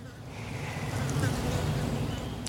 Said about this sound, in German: Heute ist es leicht windig und die Baumwipfel, die bewegen sich